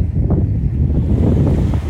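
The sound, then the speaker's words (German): Steady, loud wind noise buffets the microphone outdoors, a dense low rumble with gusty flutters throughout and no clear voice on top. “auch wenn hier gerade ganz viel Wind ist und die Qualität jetzt nicht so gut ist”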